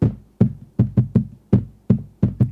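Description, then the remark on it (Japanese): A hand thumps rhythmically on a tabletop, about nine booming knocks in a syncopated beat-like pattern, with no voices. “面白い音がしますねなんかボンボンってかっこいいですねこうテーブルを叩くだけでね”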